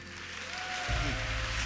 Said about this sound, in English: I didn't ask you to clap, so if you are clapping, clap very, very, very well.